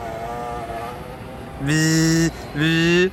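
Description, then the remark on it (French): A battery-powered drone's motors whine, a faint steady hum that surges twice into loud, high-pitched revving bursts, each rising in pitch before cutting back. “Est-ce que tu enregistres des vidéos avec le télé, avec le, drone ou pas là”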